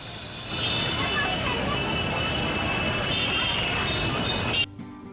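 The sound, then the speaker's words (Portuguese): Dense, steady street traffic roar in Kathmandu, Nepal, with old cars honking and engines rumbling, a sustained high, horn-like tone running through it, mixed with indistinct voices, then cutting off abruptly near the end. “Você vendo todo aquele caos do trânsito, os carros antigos, velhos, buzinando, as pessoas cruzando pelo meio da”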